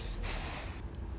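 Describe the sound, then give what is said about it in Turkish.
A dog gives a short, forceful snort, a single breathy burst of air through the nose lasting about a second, with no talking. “bir köpek geldi.”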